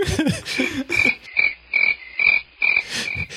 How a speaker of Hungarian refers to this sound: Most kell tücsök hang.